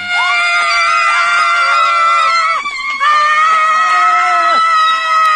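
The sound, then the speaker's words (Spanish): A woman screams excitedly upon winning at the Golden Globes, a long, high-pitched, sustained shriek that wavers and briefly breaks for breath, loud throughout, with faint crowd noise beneath. “Entonces, ella gritó de la manera más sexy.”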